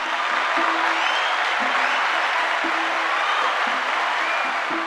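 A crowd applauds steadily, a dense wash of clapping from many hands that holds at an even, fairly loud level throughout, with no voices breaking through.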